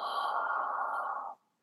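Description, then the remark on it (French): A single breathy, voiceless vowel sigh, a letter blown out instead of sung, held steadily for over a second, then cutting off abruptly, with no talking. “on va aller souffler la lettre.”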